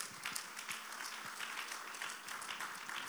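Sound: audience clapping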